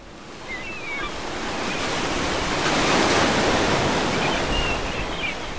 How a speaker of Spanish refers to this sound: El mar Mediterráneo.